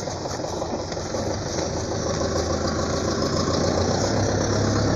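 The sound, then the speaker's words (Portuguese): A car engine idles, a steady low rumble with a faint knocking pulse that holds evenly for several seconds, with no talking over it. “Ui, tem um carro aqui.”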